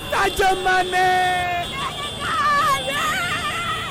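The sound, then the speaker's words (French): A crowd of supporters cheers and shouts in the streets, celebrating the national football team's 2021 Africa Cup of Nations title amid car horns and a parade of motorcycle taxis, with several loud, sustained cries of joy rising and wavering over a constant background hubbub. “ou plus simplement cri de joie.”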